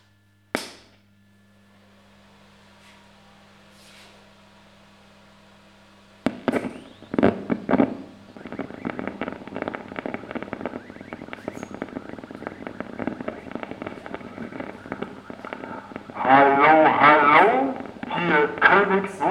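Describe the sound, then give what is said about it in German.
A crackling, static-heavy radio transmission of a 1920s song, recorded on 9 February 2020 from a broadcast over the arc transmitter on the Funkerberg: a low hum first, then a sudden burst of noisy, distorted music, with a singing voice rising near the end. “Wir hören jetzt eine Aufnahme, die am 9. Februar 2020 bei der Übertragung über den Lichtbogensender auf dem Funkerberg entstanden ist.”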